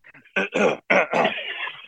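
human body sound, man clearing his throat

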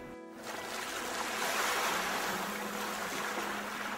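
nature, sea waves breaking

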